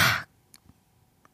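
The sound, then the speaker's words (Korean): An umbrella snaps open with one loud whoosh of fabric, followed by a few faint clicks and rustles from the frame settling. No one speaks. “정답은요, 우산 펴는 소리였습니다”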